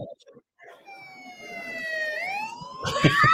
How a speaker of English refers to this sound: I want to know who fired the siren.